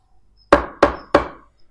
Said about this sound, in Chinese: 女巫正要回答，突然听到一阵敲门声。